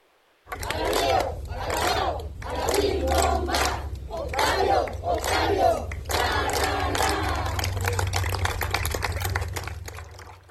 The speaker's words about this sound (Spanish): lo despidieron con un minuto de aplausos, más de un minuto de aplausos y porras